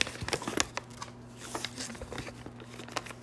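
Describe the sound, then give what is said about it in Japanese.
Dry crinkling of paper as a folded love letter is opened and handled, with a burst of rustles early on and softer scattered crackles after, under a faint steady background hum. “でもほらラブレターほらみんなに読んだらさかわいそうじゃんだからだから読まないけどちょっと見せてくださいね”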